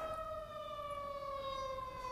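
siren passing outside

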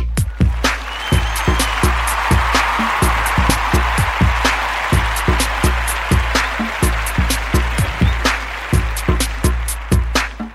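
applause

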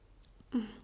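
smacking lips

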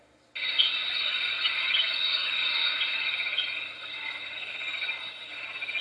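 forest ambience

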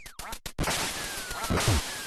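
duck quacking

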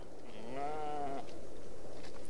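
sheep bleating

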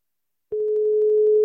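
telephone beep tone

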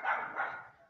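dogs barking outdoors

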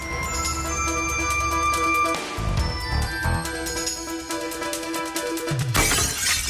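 glass shattering

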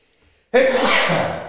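sneeze

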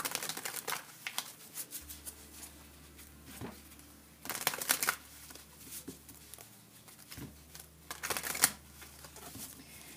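shuffling tarot cards

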